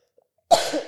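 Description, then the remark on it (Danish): A single sharp cough bursts out after a moment of near silence, loud at onset with a raspy, breathy tail and no talking around it. “er da utroligt med den host, det her.”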